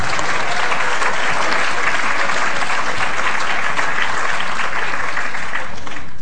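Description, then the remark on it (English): An audience breaks into sustained applause for a question asking the government's Minister for Women what issues she would raise with the Pope, a dense, steady patter of many hands clapping for about six seconds at an even, fairly loud level, with no voices standing out. “That's the first, actually, an applause for a question.”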